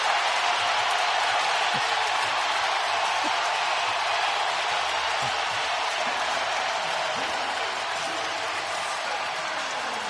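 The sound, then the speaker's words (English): A large arena crowd at Chase Center roars and cheers for Klay Thompson as the Golden State Warriors' roster is introduced, a dense wall of sustained noise with clapping mixed in, loud and unbroken for the whole stretch. “Klay Thompson this is a roar for Klay.”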